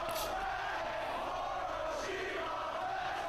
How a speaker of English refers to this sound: Crowd here in Manhattan a little bit split in terms of who they are supporting in this bout.